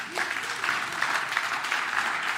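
A crowd applauds steadily, a dense, even patter of many hands clapping at once, holding a fairly constant loudness throughout with no voices standing out.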